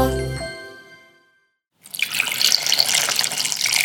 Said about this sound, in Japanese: 目覚めのいいね今朝は今が旬アサリの酒蒸しのいい音それではお聴きください